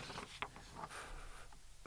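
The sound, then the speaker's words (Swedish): Soft rustling and crinkling of papers being handled as someone holds them up, with a few brief sharper crackles amid a low background hum; no one speaks. “Eh, jag ser att du håller upp lite papper här.”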